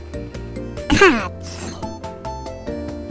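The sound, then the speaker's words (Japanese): A voice imitates a seal stamp, a 'taikoban' seal of approval, being pressed down with one sharp, forceful vocal burst, followed by a brief high squeak, all over steady background music. “これ太鼓判の音ですよこれはいこれはおすすめということですので”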